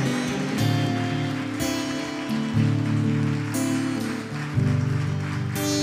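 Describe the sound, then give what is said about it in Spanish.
A large crowd gives a loud round of applause to all the nations during a broadcast, a dense continuous clatter of clapping lasting several seconds over sustained musical chords that shift a few times underneath. “Vamos a darle un fuerte aplauso a todas las naciones.”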